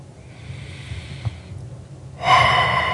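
A slow, airy inhale followed by a short pause, then a louder, forceful exhale: a single deep breath, clear, with no talking, taken as the final breath of a guided relaxation before opening the eyes.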